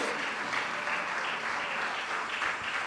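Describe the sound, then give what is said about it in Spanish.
An audience applauds loudly and steadily in worship, praising the Lord for rising from the tomb, a dense wash of many hands clapping at once, sustained without a break across the whole stretch, with no voices standing out above it. “Denle un aplauso fuerte porque Él no está en la tumba.”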